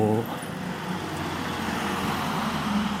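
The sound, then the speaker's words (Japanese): Steady roadway traffic rumbles throughout at about 10:30, heard while walking outside, a continuous low wash of passing car noise, with a brief bit of voice at the very start. “まあ、外でこういうふうに歩きながらね話したりすることもあるんですけどもそういう時もねなんかこういうふうに車の音からもうるせえなみたいな感じでかなり気になっちゃってね気が散るっていうような感じでね”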